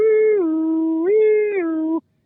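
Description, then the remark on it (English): A reedy, nasal diaphragm mouth call used by an elk caller imitates a European two-tone ambulance siren, stepping high then low twice in a steady pattern over about two seconds, loud with no talking. “And so we typically tell a new caller, like, don't worry about if we can make the high note and we can sound like, you know, we do the European ambulance with the go high to low, you know,”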